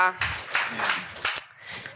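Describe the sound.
An audience claps together, a dense, steady patter of many hands filling the room for about two seconds, with a brief voice at the start.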